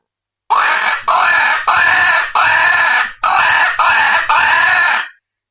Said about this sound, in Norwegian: Hvis du tar med deg en, en kråkelokk da, som lager, kan blåse i den her, den bare lager vanlige kråkelyder